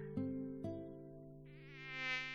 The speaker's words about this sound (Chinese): 这该死的热带蚊虫！